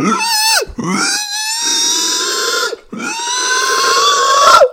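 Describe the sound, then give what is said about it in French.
A voice imitates the war cry of pigs with three loud, shrill squealing grunts, each drawn out and harmonically rich, separated by brief pauses, alone with no other talk. “cri de guerre des cochons et il s'est fait exploser. Vous avez vu, je le fais bien.”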